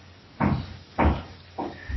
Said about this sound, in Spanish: Y empezaron los martillazos, ¿eh? Qué tino, ¿eh?